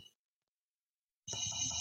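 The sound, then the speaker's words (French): A single small cymbal hit from a little drum kit app on a smartphone bursts in after a stretch of silence, a bright, tinny metallic ring that holds steady without fading. No one speaks. “Une petite cymbale.”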